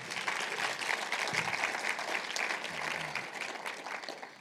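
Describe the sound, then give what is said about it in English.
A crowd bursts into sustained applause for the host pastor and his wife, many hands clapping together in a dense, steady roar for several seconds at an even loudness. “Let's give them a big hand clap.”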